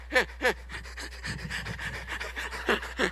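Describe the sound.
A voice imitates ugly sobbing: two sharp, heaving gasps, then a wavering, whimpering sob, then two more gasps at the end. Fairly loud, with no other talking.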